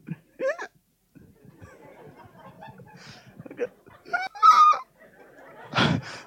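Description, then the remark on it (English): A voice imitates desperate gasping for breath as if winded, with the wind knocked out after a fall: a series of strained, wheezing intakes and choked vocal sounds over several seconds, ending in a harsh, breathy rasp. “I get up I can't breathe. I go.”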